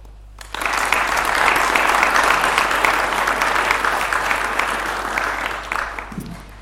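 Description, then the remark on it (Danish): A sustained burst of applause from an audience of just under 100 people welcoming a guest, dense and loud, with many hands clapping steadily for several seconds before fading out at the end. “vi sidder lige knap 100 i mit øh, headset, og formentlig også dig, der, der lytter. Det lyder som om, der sidder 5.000.”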